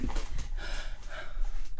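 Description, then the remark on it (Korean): A voice imitates a singer's heavy, breathy breathing as a singing impression, with airy exhales and soft huffing rising and falling continuously, no words spoken. “어 비슷해 어 비슷해 야 비슷하다 숨소리가 똑같아 끝났어”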